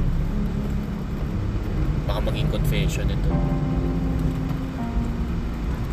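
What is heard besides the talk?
car interior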